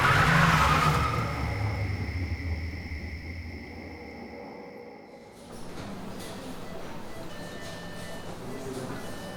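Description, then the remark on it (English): A car engine rumbles loudly, then steadily fades over several seconds as an attacker drives the vehicle away, leaving a quieter background hum. “He curb stomped me a few times, payback for the flashlight probably, and then drove off.”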